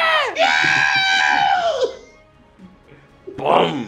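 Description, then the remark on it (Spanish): A voice mimics the iconic electronic scream of the Star Wars droid R2-D2 as a door opens: a loud, high, harmonic shriek lasting over a second that bends downward, then quiet, then a shorter second squeal near the end. “Y, en eso se va abriendo la puerta y se escucha el icónico gritillo de Artu.”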